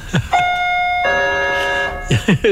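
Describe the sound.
A small bell is pressed twice in quick succession, each strike giving a bright, clear ring that lingers for about a second. Brief bits of voice come just before and after.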